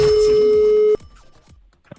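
A single loud, steady telephone ringing tone as the Sketch Bros call someone about an advertisement for a horse sounds for about a second, then cuts off abruptly, leaving only faint clicks and low background noise.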